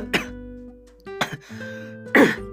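Three harsh coughs from a person with a sore throat, spaced roughly a second apart, with the last one the loudest and most forceful; no talking in between.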